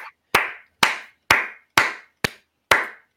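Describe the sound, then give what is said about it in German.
Slow, steady hand claps, about seven of them, evenly spaced roughly every half second, each a loud sharp smack with a short ringing tail; no voices. “erstmal Applaus natürlich für Jonas”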